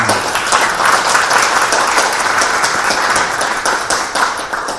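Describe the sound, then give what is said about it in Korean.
A crowd at a Forum IT event on artificial intelligence breaks into sustained applause for the two speakers, many hands clapping in a dense, steady wash that stays loud for several seconds with no voices over it. “그래서 저희 오늘, 어, 인공지능에 대해서, 어, 깊고도 이제 다양한 얘기 나눠주신 이제 두 분께 여러분, 일단 먼저 박수 한번 부탁드리겠습니다.”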